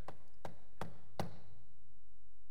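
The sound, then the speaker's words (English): A judge's gavel bangs four times in a quick, steady rhythm in court, each strike a sharp wooden knock, the last one loudest and followed by a short fading ring. No one speaks. “And this, you know, this gavel thing happened that.”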